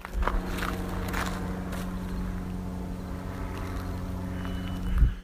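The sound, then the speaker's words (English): A steady, low airplane engine drone hums throughout with a constant tonal buzz, while a few soft footstep-like crunches sound near the start and again at the end. “and now you can hear a spooky plane”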